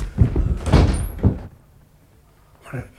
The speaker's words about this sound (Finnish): Viska äkkiä paketti ikkunasta ulos.